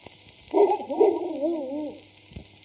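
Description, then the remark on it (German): A person imitates a dog with a single drawn-out, wavering howl lasting about a second and a half, fairly loud, with no other talking around it. “Mach mal einen Hund.”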